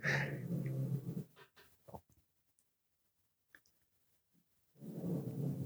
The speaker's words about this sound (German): Jetzt hier im Hintergrund ist es vielleicht so ein bisschen der Mops, der schnarcht.